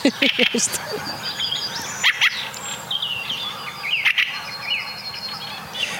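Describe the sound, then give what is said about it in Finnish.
A quick run of harsh, honking goose calls in the background opens the scene, while a thrush sings bright, varied whistled phrases steadily throughout, clear against an outdoor forest background. “Hanhet pajattaa siellä taustalla. Ja rastas. korostaa itseään.”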